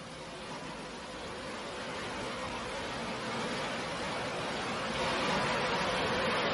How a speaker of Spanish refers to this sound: Frente a ella el televisor está encendiendo emitiendo solamente ruido estático.